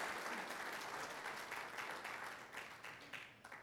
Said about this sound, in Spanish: Amado hermano, ¿acaso Dios no es digno de darle un fuerte aplauso? Porque lo que es imposible para el hombre es posible para Dios.